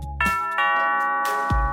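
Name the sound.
doorbell ringing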